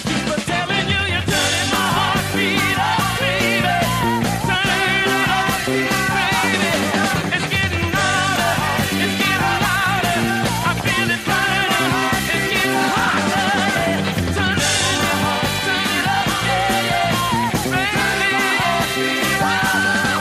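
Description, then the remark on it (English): A 70s disco soul record plays loud and continuous on the 70s Soul, Funk, and Disco show, with a driving steady beat, full band and bright upper-range energy, filling the whole stretch without pause. “don't know about you, but I get puffed out just thinking about dancing to that record nowadays.”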